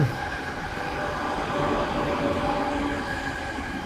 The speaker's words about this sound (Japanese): あ、電車がめっちゃうるさいし、やたら通ります、はい